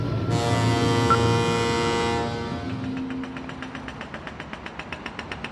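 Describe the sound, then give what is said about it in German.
Underwater noise: a loud, sustained horn-like drone for about two seconds, then a steady, rapid mechanical pulsing like a ship's engine or propeller, continuous, with no voices. “Doch das große Problem sind nicht Orcas oder Haie, die die Kälber als kalorienreiches Frühstück verspeisen wollen, sondern Lärm. Unterwasserlärm.”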